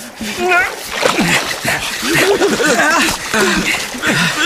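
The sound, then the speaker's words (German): Continuous splashing and sloshing of water as a child kicks and thrashes in a hole in the ice, holding a ladder while being pulled out, mixed with a child's voice and chuckling sounds over it. “Hör auf zu strampeln, dann geht es leichter.”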